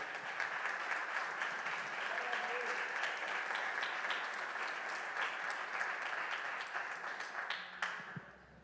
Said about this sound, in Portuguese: Então dá um glória a Deus ao Senhor e aplaude ao Senhor aí. Glória a Deus.